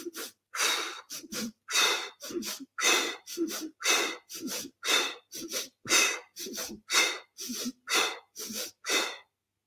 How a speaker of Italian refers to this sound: Si chiama respiro di fuoco proprio perché brucia la mente. Quindi se te la senti, anziché il semplice respiro circolare, puoi fare il respiro di fuoco. Nove respiri di fuoco mentre la spada di luce preme sul terzo occhio nove respiri di fuoco.